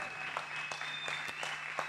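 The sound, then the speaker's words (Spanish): An audience applauds for God, a steady wash of many hands clapping at moderate volume, with a few sharper individual claps standing out and a low constant hum underneath. “Bueno, un fuerte aplauso para Dios.”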